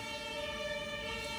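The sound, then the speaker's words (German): An ambulance siren wails steadily and loudly, its bright tones held at a near-constant pitch over a low rumble of traffic, with no voices present. “Nee, das ist, ist ein andere. Krankenwagen. Das ist ein Krankenwagen”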